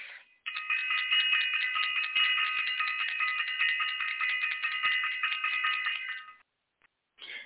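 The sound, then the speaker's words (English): A bell is rung rapidly and continuously for about six seconds, a bright, high, shimmering clang with no talking, then a brief final ring after a short pause. “Got to ring the bell for self-invested and for all of our self-invested family members and who attended the release, the stress release live event”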